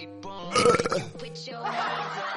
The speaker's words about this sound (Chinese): 男朋友第一次来我家吃饭的时候，我妈做了烧鹅，这货吃撑了，连续打了三个响亮的饱嗝。